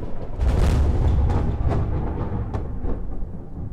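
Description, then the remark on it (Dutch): Thunder rumbles heavily through a storm at night, a loud deep roll with a few sharper cracks breaking through, sustained for several seconds with no voices. “Die nacht onweerde het.”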